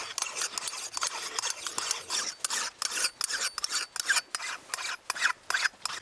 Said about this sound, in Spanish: Es la herramienta indispensable, el martillo forestal que permite martillar. Eh, permite designar los árboles que serán elegidos para la venta y el corte.